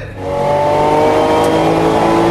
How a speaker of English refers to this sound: People think I'm crazy because I drive my super expensive vintage race cars in vintage races that involve a lot of other cars and concrete barriers. But hey, man, you gotta live.